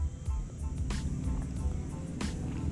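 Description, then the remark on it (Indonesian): A motorcycle engine rumbles steadily, a low droning growl with a few sharper bursts as it goes past, fairly loud and continuous throughout. “oke okay, ada iklan suara motor”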